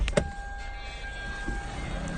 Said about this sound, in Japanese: さあ車から出ました